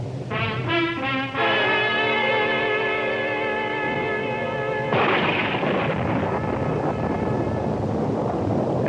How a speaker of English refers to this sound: I got in and told him and sat back, listening to the storm and looking out at the flood of rain on the streets.